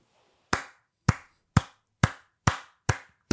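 One person slow hand clapping: seven sharp, evenly spaced claps about half a second apart, each crisp and loud with a quick decay, alone with no talking.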